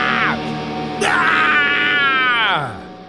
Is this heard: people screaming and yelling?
yes